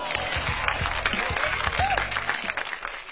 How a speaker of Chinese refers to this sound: 这是大龙的经验，给大龙鼓点掌吧。